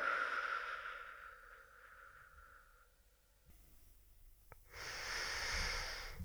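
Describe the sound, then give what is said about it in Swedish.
A long, slow breath out during a breathing exercise fades gradually over a few seconds, followed by a brief quiet pause and then another airy breath. The breathing is steady, with no talking. “Om ni nu andas ut länge, länge, länge och så pausa lite.”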